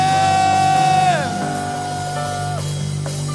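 A church crowd cheers and shouts loudly and continuously in praise of God, with sustained yells and whoops; one held, high-pitched cry bends downward partway through while the roar carries on steadily underneath.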